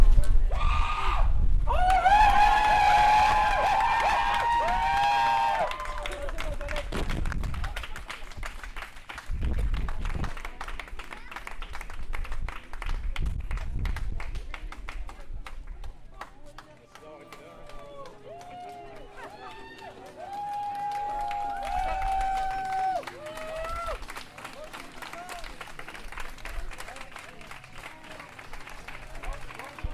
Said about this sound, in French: On entend du vent dans le micro. Il y a du vent dans le micro aussi.